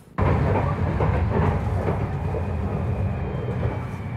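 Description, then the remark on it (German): A tram rumbles steadily through Magdeburg in the evening darkness, heard on board as it rides: a heavy low-frequency roar with faint rhythmic clatter of wheels on rails, loud, with no voices. “Ich fahre wie Daniel mit der Straßenbahn durch Magdeburg.”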